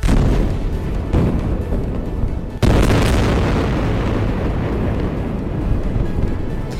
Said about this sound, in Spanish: Bombardeos durante toda la noche se cuentan por cientos los muertos en Israel y también en Palestina y por miles los heridos,